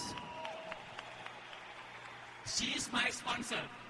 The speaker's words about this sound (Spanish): Así que denle un fuerte aplauso